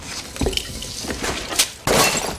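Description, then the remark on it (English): A vase is knocked over by Neo in the scene with the Oracle and breaks: a dull thunk, then a bright ceramic crack and a loud burst of shattering with pieces clattering and scattering before fading. No one speaks. “When the Oracle anticipates Neo knocking over the vase, and don't worry about the vase.”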